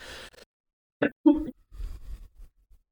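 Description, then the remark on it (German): A few short, harsh coughs coming in quick bursts with brief pauses between them, followed by some quieter low murmuring sounds. “Gehustet habe ich, sorry.”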